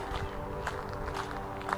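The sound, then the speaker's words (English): Steady footsteps crunch along a gravel walkway running alongside a river in a forested glen, each step a soft gritty scrape in an even walking rhythm, with a faint steady hum of outdoor ambience underneath. “And we begin to walk now together down the gravel”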